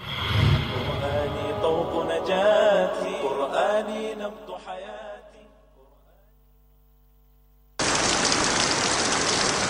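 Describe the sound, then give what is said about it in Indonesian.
A musical passage fades to near silence, then a loud, steady hiss of falling rain abruptly starts and continues without a break to the end. “Hujan. Itulah yang terpikirkan ketika mendengar kata payung.”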